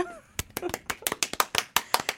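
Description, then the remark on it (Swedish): A short burst of applause from a small group welcoming a guest in a studio: sharp, crisp claps in a loose, uneven rhythm for about two seconds, with a brief voice or laugh at the start. “Eh, en stor applåd!”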